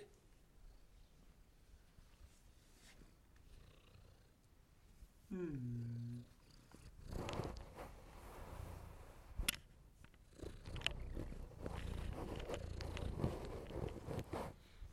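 A cat cuddles up against the microphone and purrs, a loud, rumbling, continuous purr with a brief meow-like call early on and rustling bumps as it rubs against the microphone.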